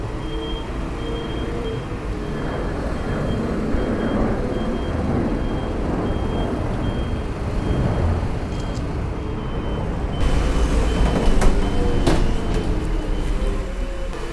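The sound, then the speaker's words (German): A car drives to the airport with a steady engine and road rumble, continuous, with a faint high whine over it and a louder stretch of noise near the end. “Dann begeben wir uns jetzt sozusagen zum Flughafen mit Ihrem Auto und schauen, was dort weiter passiert.”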